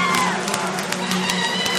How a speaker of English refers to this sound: And there's the cheers in the background from Alan's mic down at the pit wall.